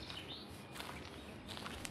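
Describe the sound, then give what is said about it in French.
Faint, scattered bird chirps in nature in spring over a steady outdoor hiss, with a few short calls near the start and a small cluster toward the end, all quiet. “j'ai entendu les bruits de la nature, l'oiseau qui se balade, le vent doux, les feuilles.”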